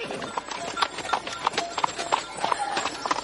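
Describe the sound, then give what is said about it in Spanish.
A horse ridden by a bearded middle-aged man walks at a steady, uneven clip-clop over a dirt road behind a donkey carrying water jugs, soft thuds repeating roughly every third of a second with a faint background hiss throughout. “Tras ellos, avanza a caballo un hombre con barba de mediana edad.”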